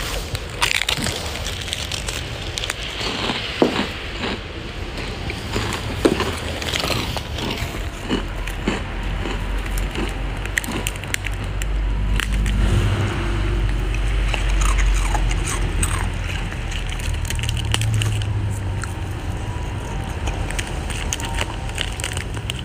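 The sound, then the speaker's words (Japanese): Crisp crunching of senbei rice crackers eaten by two, with sharp bites followed by steady chewing and splintering crackles over about twenty seconds, with no one talking. “お家に帰ってきたら向かいのおばちゃんがおせんべいをね投げ込んどいてくれました玄関先に何だろうと思っちゃうねじゃあおせんべい食べようと一緒おせんべい食べよう”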